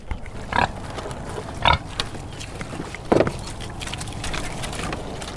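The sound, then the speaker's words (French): Pigs raised in the open air grunt outdoors on fields in three short, throaty bursts spaced a second or so apart, over a steady low background rumble, with no one speaking. “en face de nous, sur les terrains, nous avons euh, des, ports en plein air.”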